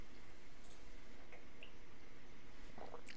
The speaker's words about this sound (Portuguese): Estava bebendo uma água aqui, né?